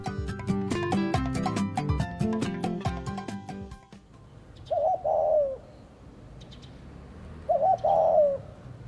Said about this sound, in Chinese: 海草，你看那个小鸽子又来了。